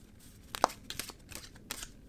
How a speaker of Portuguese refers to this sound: Então vamos lá, vamos baralhar as cartas.